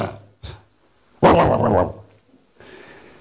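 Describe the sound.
A person imitates a dog barking, loud: two short yips, then a longer, rough, growling bark that trails off into quiet background hiss.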